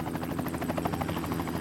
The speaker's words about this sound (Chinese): 哇，怎么回事？我我怎么突然风好大？ 哦哦哦，是直升机！